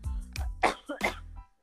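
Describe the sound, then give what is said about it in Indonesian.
A quick run of about four harsh, explosive coughs, fairly loud, each burst sharp and breathy with short gaps between them. “aduh kok batuk ya”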